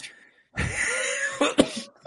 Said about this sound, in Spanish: es que me va a venir la tos, espérate